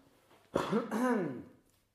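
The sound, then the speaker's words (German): A single drawn-out throat clearing, fairly loud, with a rough, gravelly rumble that rises and falls over about a second before trailing off into quiet. “Also erstmal muss ich mich jetzt räuspern.”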